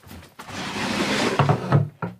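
desk drawer being opened

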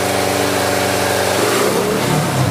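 motorcycle engine revving

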